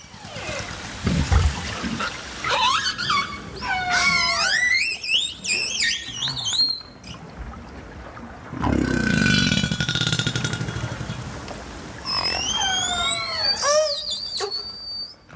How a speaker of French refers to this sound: c'est extraordinaire parce que en plus euh, c'est un champ euh, de son très large, très aigu, très très grave. Il y a toute une, panoplie qui est propre à chaque groupe, c'est formidable. C'est absolument génial les orques.